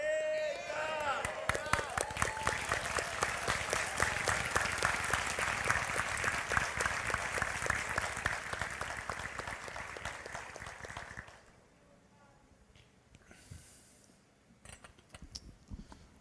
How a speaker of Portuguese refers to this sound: Se as palmas foram para mim, tá bom demais, mas se é para Jesus, tem que aumentar esse volume aí.